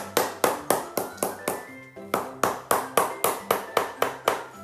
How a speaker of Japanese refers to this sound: 全体叩いたらねこの辺の、えー、縁ももう一回叩き直しましょう